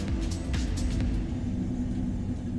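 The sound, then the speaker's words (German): A steady, loud low rumble fills the interior of a moving train, with a few brief hissing rattles early on and no voices over the continuous drone. “Aber zurück in den Zug.”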